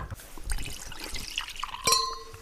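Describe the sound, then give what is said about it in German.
Hot water from a kettle poured into a novelty mug on which a printed man undresses to his underpants when something hot goes in, a steady gurgling trickle for about two seconds, ending with a short ringing clink of ceramic. No one speaks. “Nein, die ist sehr lustig, weil wenn da was Heißes reinkommt, zieht sich der Mann aus und dann steht da eine Unterhose da.”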